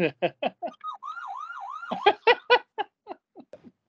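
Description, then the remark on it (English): Someone imitates a siren with their voice, a wavering wail that rises and falls a few times, framed by short choppy vocal bursts before and after. “You didn't do the siren”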